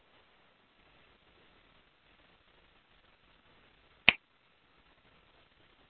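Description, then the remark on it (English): A single sharp finger snap cracks out once, loud and crisp, at the close of the Melchizedek Garment of Light frequency session. It sounds against a faint steady hiss, with no talking. “So when you feel comfortable, you can come back to your body and open your eyes and snap your fingers.”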